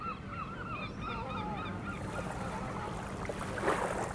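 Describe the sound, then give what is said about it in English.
A flock of geese honks in a rapid, overlapping chorus for about two seconds, then the calls thin out beneath a steady rushing, watery noise. “It's the goose that leads the, the V that cuts across the sky.”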